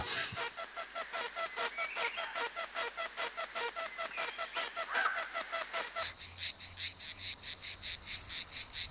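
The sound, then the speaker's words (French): A chorus of male cicadas, each male singing with the cymbals at the base of its abdomen and trying to overlap the others' signals, calls with loud, shrill buzzing that throbs in a steady rhythm of rapid pulses, then merges into a continuous, dense high-pitched drone. “Et donc ça produit un épiphénomène qui est ce, ce cœur qu'on entend.”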